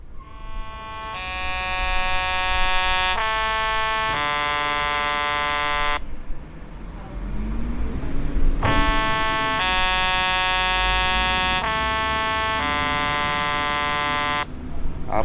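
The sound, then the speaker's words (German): The horn of a Post bus sounds the post horn three-tone signal, its permitted normal horn signal, twice, each a rising-then-falling sequence of loud, brassy chord tones lasting about five seconds, with a steady engine rumble underneath and a brief pause between. “Eine einzige Ausnahme gilt für Autobusse der Post. Diese dürfen die Tonfolge AFIS AD Posthorn als normales Hubsignal verwenden.”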